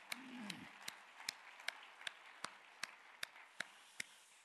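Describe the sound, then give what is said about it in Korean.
A church audience claps for its short-term mission team going to Haiti: steady, evenly paced hand clapping, about a dozen sharp, crisp claps in a regular rhythm, fairly soft overall, with a brief low murmur at the very start and no talking. “대표 용화 박수 올려드리겠습니다.”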